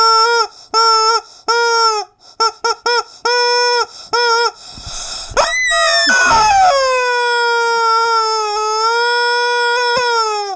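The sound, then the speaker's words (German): A voice imitates a warning siren: a string of short, loud wailing tones, then a rising swoop into one long, sustained mournful wail. “Die Quatschbrötchen-Sirene. Ah. glaube, so funktioniert. Sie klingt sehr traurig.”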